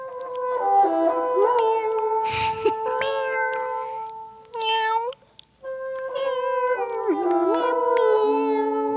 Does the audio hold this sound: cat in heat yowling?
yes